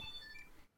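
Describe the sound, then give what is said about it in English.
Faint electronic beeping from a button triggered by a channel point redemption, a few short high-pitched tones sounding in the background with no one speaking, then cutting off into quiet. “So basically, what ha- just happened there is I made a button beep with a channel point on my channel, and then Mouse will go boop that button with his nose.”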